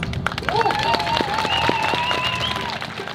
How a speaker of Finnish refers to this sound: Tänään me ollaan tässä romaneiden kohtaamien epäkohtien puolesta puhumassa ja nostamassa niitä esille. Väliaplodit!